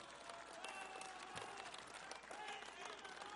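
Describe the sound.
An audience in Tepatitlán applauds steadily for a few seconds, a dense, even wash of many hands clapping for the town's people, with a faint murmur of crowd voices running underneath.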